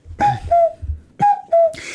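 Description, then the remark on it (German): Someone imitates a cuckoo with their voice: two clear cuckoo calls, each a pair of hooting notes that step down in pitch, given twice in steady rhythm, fairly loud with no talking. “Und wenn du den Kuckuck hast...”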